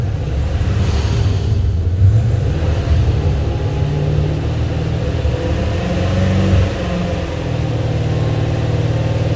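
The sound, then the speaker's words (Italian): A car engine, just started, running on two cylinders and left to warm up, sputters unevenly at idle, loud, its low rumble steady but rough throughout, with no one speaking. “bisogna lasciarlo scaldare comincia a prendere un ciò è partito a due cilindri e comincia a girare”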